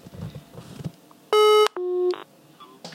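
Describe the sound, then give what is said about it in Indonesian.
Two short, loud electronic telephone line tones sound back to back as a dropped call is redialed, each lasting under half a second, against a quiet background of faint noise. “Kita coba recall lagi.”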